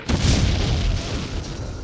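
A loud, deep crash of a red biplane plunging steeply and hitting a lawn a few meters from the Reichstag in Berlin, its booming impact rolling into a heavy, sustained rumble that fills the full two seconds with no voices.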